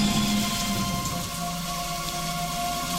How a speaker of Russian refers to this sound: Итак, дорогие мои, вот он, этот день, когда разражается невероятно сильная метель, мокрый снег и град нещадно чередуются с жестокими порывами ветра.